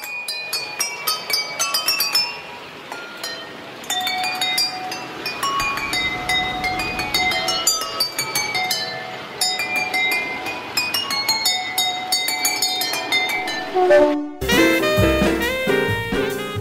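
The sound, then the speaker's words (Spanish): A miniature train moves along a track lined with water-filled glasses (2,840 in total, set up to play 20 classical melodies) and strikes them in quick succession. This produces bright, bell-like clinking tones that form a rapid melody, with a brief pause before a final flurry of chimes. “armaron un tren miniatura que debía avanzar a lo largo de una vía rodeada de miles de vasos llenos de agua”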